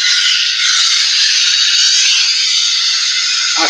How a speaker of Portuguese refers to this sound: Por exemplo, os índios fizeram o pau de chuva e, e a gente fez aqui